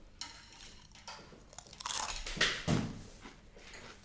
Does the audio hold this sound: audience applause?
no